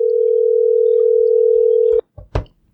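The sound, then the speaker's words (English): A steady, fairly loud ringback tone of an outgoing phone call hums for about two seconds and then cuts off, followed by a couple of soft clicks or thumps on the line. “Oh, oh, it's ringing.”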